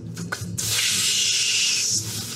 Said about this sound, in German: Und dann hört man es auch so zischeln. Ja, genau. Wir hören es auch zischeln, als äh, die Lederschnalle an der äh, Sie gerade hängt, anfängt